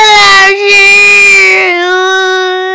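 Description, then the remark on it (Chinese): A voice imitates the little dolphin in a children's story crying: a loud, high, sustained wail with a brief catch of breath near the start, then a steadier, slightly lower drawn-out cry. “”小海豚就开始哭了。”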